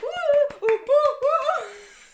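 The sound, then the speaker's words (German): A voice imitates a crowd cheering with rising, monkey-like whoops and hoots, while a handful of sharp hand claps land irregularly between them, pretending to be several people, fairly loud for about two seconds. “Hat sich angehört wie ein Affe.”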